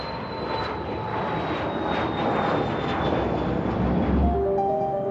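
airplane engine in flight

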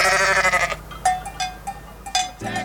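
sheep bleating

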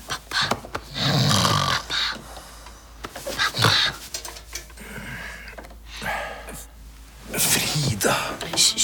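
person snoring

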